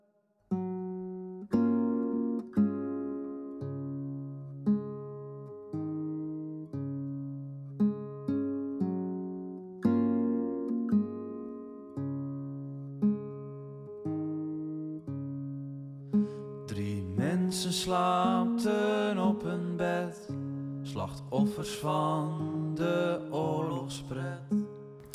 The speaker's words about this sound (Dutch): Ehm, je hebt geluisterd naar een volksliedje. Eh, wat echt eh, uit die tijd, eh, of net na die tijd van de Eerste Wereldoorlog stamt. En dat komt uit Zeeland.